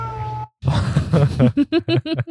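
cat meowing

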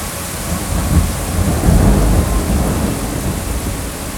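heavy rain with thunder

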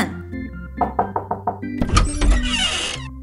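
knocking on a door

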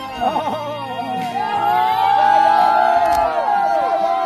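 audience cheering

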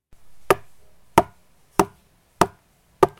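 knocking on a door

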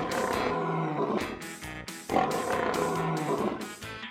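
lion roaring

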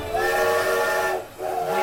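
train whistle

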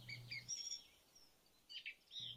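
sparrow chirping

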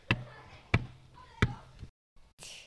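knocking on a door

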